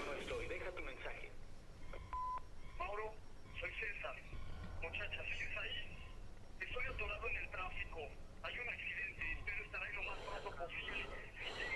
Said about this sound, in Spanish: ¿Qué es eso, güey? ¿Un teléfono?